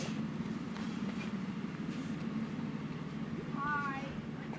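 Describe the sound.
A large truck with a man in it: its engine rumbles steadily, with a brief warbling beep rising near the end over the low mechanical drone and faint background voices.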